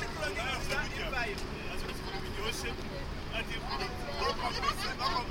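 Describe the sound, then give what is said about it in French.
A constant low engine rumble fills a crowded bus travelling to Dar es Salaam while many passengers chat at once, their overlapping voices forming a steady, busy murmur throughout. “La fin de mon voyage approche et je retourne donc à Dar es Salaam en bus.”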